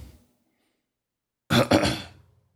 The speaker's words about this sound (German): Alter, ich bin so Schleim im Hals. Hört man aber nicht so. Oder geh noch mal rotzen.